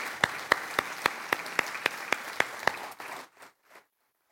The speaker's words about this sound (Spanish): Denle un aplauso a Él, porque Él Aleluya. Aleluya.